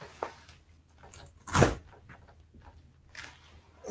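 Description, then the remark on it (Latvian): A window is pulled open with one sharp, fairly loud clunk midway, surrounded by quieter scrapes and knocks of the frame, otherwise quiet. “Parausim logu vaļā savādāk.”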